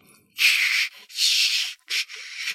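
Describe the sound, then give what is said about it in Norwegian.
A person's voice imitates the grinding phase of a bird's three-phase display song, making four harsh, hissing scraping bursts in an uneven rhythm, fairly loud, with no other sounds. “det vanlige spillet er oppdelt i tre faser. Det er først en sånn sliping, eller feeling”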